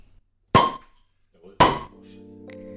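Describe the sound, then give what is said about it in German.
Two sharp glass clinks about a second apart, each ringing briefly, as glasses are touched in a toast, followed by a low steady murmur of faint voices. “Cheers, meine Lieben. Prost, schön war's.”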